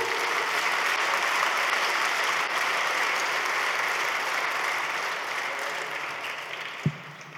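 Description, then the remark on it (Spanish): An audience applauds the Lord steadily for several seconds, a dense wash of many hands clapping that slowly fades a little, with one sharp thump near the end and no talking. “Da un aplauso al Señor.”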